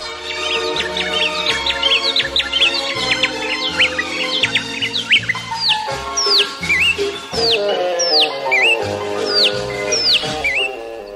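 Recorded Brazilian birds chirp and whistle in quick, repeated upward-sweeping calls, loud, layered over a steady instrumental music backing with a plucked bass line; no one speaks.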